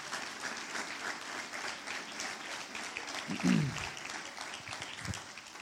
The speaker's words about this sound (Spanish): ¿Alguien lo cree? Si usted lo cree, denle un aplauso más fuerte a Jesús.